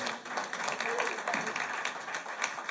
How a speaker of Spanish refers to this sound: Un aplauso a todos los voluntarios que están aquí.